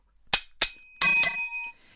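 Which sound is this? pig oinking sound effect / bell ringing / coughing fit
bell ringing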